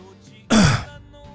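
One short, loud cough, a harsh burst of breath that ends in a brief voiced, falling tail, set against a quiet background with no talking.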